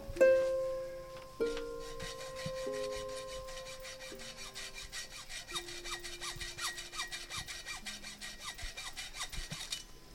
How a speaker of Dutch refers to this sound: Ze gingen met een, met een klein zaagje, eigenlijk een soort handzaag gingen ze die drie sloten doorzagen.